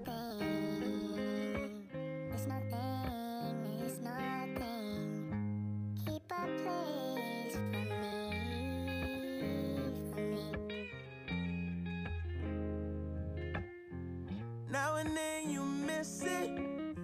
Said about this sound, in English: Hold on, man. Listen to those guitars right there.